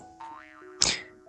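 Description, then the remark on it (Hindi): A springy cartoon boing for a spring inside a pen wobbles up and down in pitch, then ends in a sharp, bright clang-like burst. One short, clear effect with no voices. “एक बार की बात है एक पैन के अंदर एक स्प्रिंग थी”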